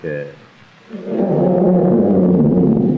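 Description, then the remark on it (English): A brief, brassy elephant trumpet opens, then after a short pause a loud, sustained, rumbling roar-like bellow follows and holds for a couple of seconds, forceful. “As he entered the jungle, he came upon a lion and an elephant.”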